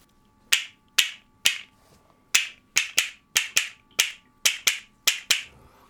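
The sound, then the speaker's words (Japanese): Sharp wooden castanet clicks from new castanets made of mountain cherry wood, about a dozen crisp bright strikes in an uneven rhythm, fairly loud with short decays, played alone with no voices. “正解はですね A が新しい山桜で作った方で”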